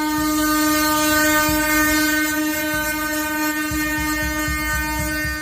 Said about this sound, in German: Mit einem lauten Hubkonzert rollten Traktoren mehrere Stunden lang auch durch die hessische Landeshauptstadt Wiesbaden. Laut Polizeiangaben sollen es rund 2000 Schlepper gewesen sein, die den Verkehr auch weitgehend lahmlegten.